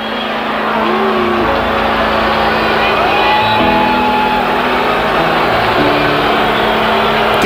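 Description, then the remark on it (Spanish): A large concert crowd roars loudly and continuously, with sustained booing and shrill whistles cutting through the din, aimed at a singer as the band begins to play. “Abucheo, chiflido, abucheo, chiflido.”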